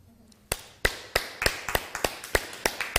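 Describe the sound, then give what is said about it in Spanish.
Sparse hand clapping from just two people at an otherwise empty community gathering: about a dozen sharp, crisp claps in a loose, slightly uneven rhythm, starting after a brief quiet moment, with no talking. “Baruch Hashem, hoy estamos sin nadie en la comunidad, así que vas a escuchar solamente dos aplausos.”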